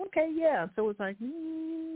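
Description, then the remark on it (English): A man speaks briefly, then hums a low, steady, unbroken tone for most of a second, imitating the quiet hum of a car's gas pump pumping fuel to the carburetor when the starter is turned on without the ignition. “it's like a little humming.”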